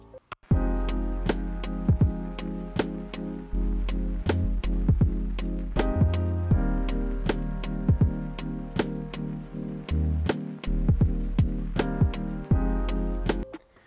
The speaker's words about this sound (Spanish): Así que primero vamos con la intro y empezamos.